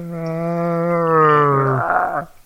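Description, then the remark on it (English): A person imitates a bear growl with one sustained, loud vocal roar lasting about two seconds, turning rough and breathy before it cuts off. “Wait, let's talk about bear sounds. Bear sounds like.”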